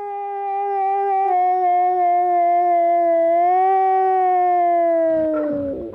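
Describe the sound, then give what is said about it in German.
A single long, steady howl rings out loud, part of a man imitating wolf howling so well that his wolves answered, holding its pitch for several seconds before sliding downward and breaking off at the end. No talking is heard. “konnte das Heulen der Wölfe so gut imitieren, dass ihm seine Tiere sogar darauf geantwortet haben, wie man hier hören kann.”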